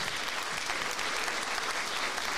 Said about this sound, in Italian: Ah no, no, no, intanto adesso sentiamo l'applausometro.